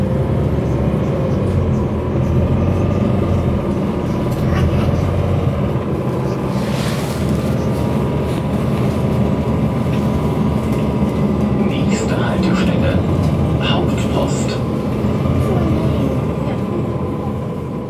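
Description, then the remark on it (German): Steady, loud rumble of a moving city bus from inside, with continuous engine drone and road noise, a few light rattles midway, and faint indistinct voices in the background. “wie ihr hören könnt, habe ich mich nicht getraut, im Bus das Mikrofon aufzunehmen, also äh, vom Mund zu nehmen und zu sprechen.”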